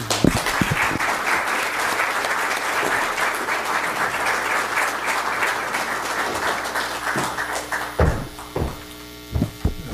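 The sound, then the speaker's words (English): Warm audience applause at CSIS welcoming the president of JBIC, Maeda-san: dense, steady clapping over a low electrical hum, tapering off near the end into a few scattered final claps. “So could I ask you with your very warm applause to welcome the, the president of JBIC, Maeda-san.”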